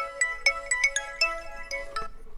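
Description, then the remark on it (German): A telephone rings at the EWH-Studio hair salon in Linz as customers call to book haircut appointments, a bright, melodic electronic ringtone, a quick series of chiming tones repeating in a steady rhythm for a couple of seconds, with no voices over it. “In Linz-Urfer hängt seit Tagen am Telefon und vergibt ihren Kunden endlich wieder mal Termine zum Haare schneiden”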